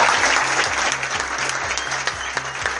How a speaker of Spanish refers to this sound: Y los despedimos con un fuerte aplauso. Ganadores del segundo premio de Desafío 24.